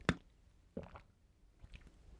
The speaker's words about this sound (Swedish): Vänta jag måste dricka vatten